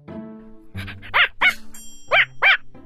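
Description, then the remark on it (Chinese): A dog whines with a low, tonal whimper while pouncing toward a small bee, then lets out a quick series of sharp, high barks in two short bursts, with no voices. “莫口一下来了兴趣，弹珠也不找了，呜呜的叫着。朝着蜜蜂扑过去，小蜜蜂东飞西飞，猫口左扑右扑，”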